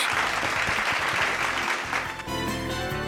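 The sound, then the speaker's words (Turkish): Loud, dense audience applause for the last program of the year, with steady clapping throughout, joined partway through by a tonal musical sting layered over the clapping. “O yüzden bir alkış”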